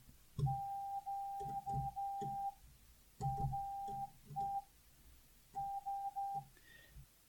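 Morse code spelling out Q, R and S at a slow pace: a steady mid-pitched tone keyed in long and short beeps, forming three separated groups, with soft low thumps under each keying.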